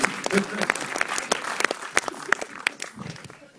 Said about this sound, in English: Clap. Don't be shy.